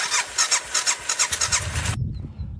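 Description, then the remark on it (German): A loaded motorcycle's engine cranks in quick, rhythmic bursts from the starter for about two seconds, then catches and settles into a low, steady idling rumble as the riders set off for Portugal. “Alles auf dem Motorrad verstaut. Und es kann losgehen.”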